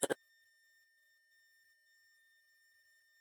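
A short click, then a faint, steady electronic tone held for about three seconds, like a phone line ringing out. It plays quietly on its own with no one talking.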